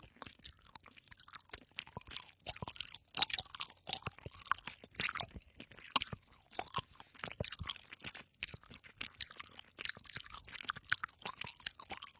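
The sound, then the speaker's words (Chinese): Soft sweet-sour candy being chewed with steady, moist, squishy clicks and smacks, a continuous quiet rhythm of wet mouth sounds with no talking. “嗯，来听一下两只耳朵同时吃糖糖的感觉。”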